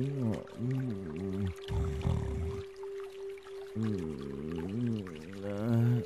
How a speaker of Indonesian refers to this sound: ternyata memang benar ya suara gemercik air seperti ini nih